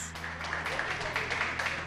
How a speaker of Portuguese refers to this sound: Nesse hospital de Salvador, os lanches foram recebidos com aplausos.